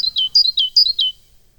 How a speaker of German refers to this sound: Das geht übrigens auch so hier mit den bayerischen Meisen, können wir auch mal reinhören. Die klingen natürlich anders. Etwas forscher als die schwäbischen Kollegen, aber unverständlich.